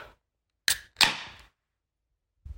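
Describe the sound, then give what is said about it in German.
A sharp pop followed by a longer hissing burst of escaping gas, loud, then quiet with a faint thud at the end: a pressurized drink bottle being opened. “Es hat so viel Druck, so fühlt sich an, als würde es jetzt maximal explodieren.”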